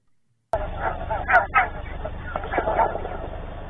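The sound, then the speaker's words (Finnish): A flock of geese honks and cackles steadily over a low outdoor rumble, with a faint, dull thump like a gunshot almost buried among the calls, picked up by a bird-watching live-stream microphone. “Kalkatuksen seasta kuuluu pieni jysäys. Pitää olla hyvin tarkkana, että tämän kuulee.”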